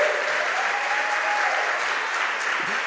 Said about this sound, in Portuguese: Ah, meu irmão, aplauda para ele.